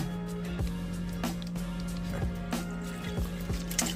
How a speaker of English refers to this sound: We got my little mixer here, getting ready to roll. So, all right, we got our packet open. Dump that powder in there.